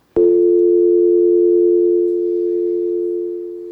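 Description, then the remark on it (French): A steady telephone dial tone, pitched at the note F, starts abruptly and holds one unbroken hum for nearly four seconds, easing slightly in loudness toward the end, with no voices. “un classique qu'on entend souvent parler, c'est le, fa- le téléphone, la tonalité du téléphone.”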